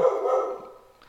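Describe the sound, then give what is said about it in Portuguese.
The speaker's dog barks once, a fairly loud, drawn-out bark that trails off into a fading tail, with no talking. “Eita, e se meu cachorro deixar também.”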